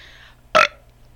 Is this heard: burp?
yes